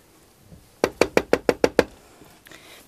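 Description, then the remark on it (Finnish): Seven quick, evenly spaced knocks rap on the door of an accessible toilet, loud, in one steady burst lasting about a second, with quiet before and after and no voices. “Pääministeri Kiltti, avaa ovi ja tuu nyt pois sieltä, kun se on invavessa.”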